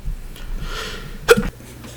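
A single sharp sneeze, preceded by a brief breathy inhale, with the burst cutting off abruptly into quiet. No one speaks.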